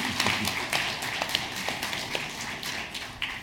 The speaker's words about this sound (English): And so, if you would, just give them a, a, like a thank you, a round of applause.